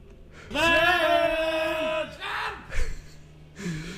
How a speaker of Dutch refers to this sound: Ze, roepen gewoon Sven. Dat is wat, ze doen. Keihard. Ja, heel hard, ja.